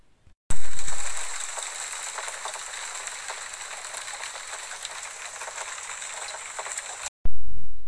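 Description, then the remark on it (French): Steady rain pours down in a loud, dense hiss, with scattered drips pattering through it; it begins abruptly, holds for several seconds, then cuts off sharply. “pique ploc, clic ploc. Il pleut.”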